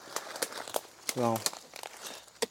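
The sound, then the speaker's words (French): A machete strikes a hard termite mound, giving several sharp, dry thwacks spaced irregularly, with scraping crunch between them and a short low voiced grunt partway through. “Alors, pour, juste pour vous, pour vous donner une petite idée, là, je suis avec la machette et je viens de mettre un coup de machette dans le nid de termites, qui est probablement inhabité, hein”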